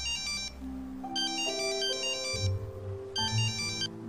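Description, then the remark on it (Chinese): A phone ringtone for an incoming call from Mom plays on its own, a looping electronic melody of stepping tones punctuated by three bright, chiming bursts, steady and fairly loud with no talking. “哎，咱妈来电话了。”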